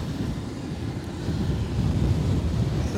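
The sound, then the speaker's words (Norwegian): Strong wind roars steadily near wind turbines, a dense low rumble of gusts buffeting the microphone, swelling slightly louder midway and continuing without pause. “trodde ikke det blåste så fælt i dag.”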